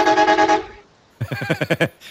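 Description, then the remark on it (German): A specially installed car horn gives one steady, bright blast, then after a short pause fires off a quick string of about seven choppy honks in a bouncy, laugh-like rhythm, loud. “Nee, nee, äh, ich habe eine spezielle Hupe in mein Auto eingebaut. Wollen Sie die mal hören?”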